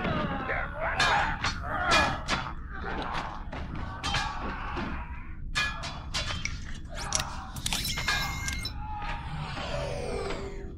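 A string of retro sci-fi sliding door whooshes, a deliberate old-time Star Trek TOS door sound in a holodeck program about the past, mixed with clanks and mechanical clatter, loud, ending in bright, sweeping tones over a steady low rumble.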